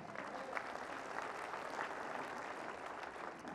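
A church audience gives the Lord a hand clap: dense, sustained hand clapping, a steady wash of many hands clapping at once, fairly loud and continuous throughout with no speech over it.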